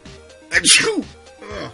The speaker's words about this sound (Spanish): Salud. ya no te voy a decir salud. Tanto mal me ha hecho este, estornudar.